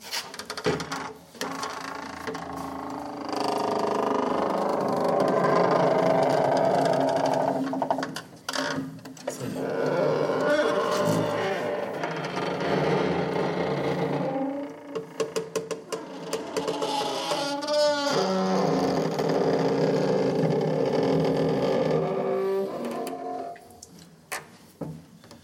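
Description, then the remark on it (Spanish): An old heavy castle door, in a castle begun in the 14th century, creaks open and shut in long, drawn-out groans with stuttering, ratchety squeaks, loud, lasting over twenty seconds with no voices. “Ah, y después encontré otra puerta muy sonora.”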